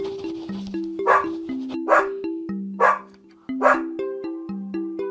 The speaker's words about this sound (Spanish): Los perros. ¿Los perros hablan? Imagínate si hablaran los perros.